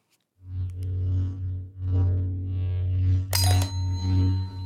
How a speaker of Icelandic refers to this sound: Þetta er geyslasverð. Jæja, nú verði ég að spyrja, eru þið Star Wars áhuga fólk?